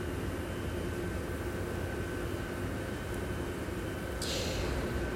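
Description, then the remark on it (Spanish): A garbage truck engine rumbles steadily with a deep, continuous drone, and a sharp hiss of air bursts out near the end. No one speaks. “Eso que escuchamos en este momento es el camión de la basura, vamos a apreciarlo porque la basura es parte de nosotros.”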